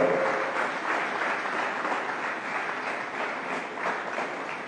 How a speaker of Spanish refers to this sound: Aplaude el nombre del Señor, por favor.